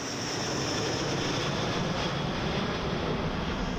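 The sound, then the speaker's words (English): A steady, full-bodied airplane engine roar drones on without letup, loud and even throughout, with no voices over it. The plane carries Svetlana over the farmland of the Midwest toward Phoenix International Airport on March 15, 1970. “So finally, on March fifteenth, 1970, Svetlana gets on a plane and makes her way to the Phoenix International Airport.”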